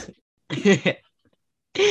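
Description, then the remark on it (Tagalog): A short bout of coughing, two harsh rough bursts in quick succession, followed by a pause before a voice starts up at the end. “Inuubo.”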